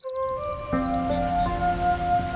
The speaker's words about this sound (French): Écoute le bruit de la cascade, les petits oiseaux, la respiration.